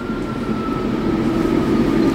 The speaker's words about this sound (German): Der Zug kommt wieder. Wir denken immer, hier startet irgendwie ein Düsenjet, aber es ist halt eigentlich nur der Zug und der Schall wird hier so re rein eine reflektiert.